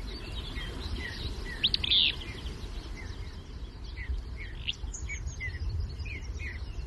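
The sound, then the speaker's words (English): Steady rushing water of the rippling Verde River fills the background in woods in the Verde Valley of Arizona, while birds chirp and tweet in short, scattered calls, including a brighter burst of song early on. No voices are heard. “I took an afternoon to walk in the woods along the rippling Verde River to set up a hammock and read from the priest of the Church of Nature.”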